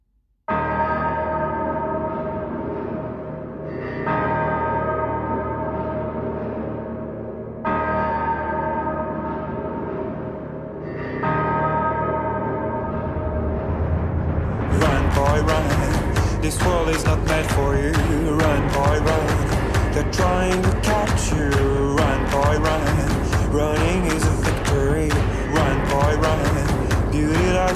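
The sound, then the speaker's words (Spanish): A song plays with no talking as the last song of the Zona Friki radio show: repeating swells of sustained, bell-like chords build for several bars, then a full, loud arrangement with pounding drums bursts in halfway through and drives on. “escuchamos nuestra última canción y nos despediremos con nuestros platos fuertes.”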